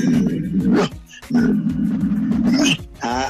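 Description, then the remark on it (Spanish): A dog lying down gives a low, rumbling growl in three fairly loud bursts, the middle one longest, separated by brief pauses, with no talking. “La que él puede estar acostado y hace un ruido como este”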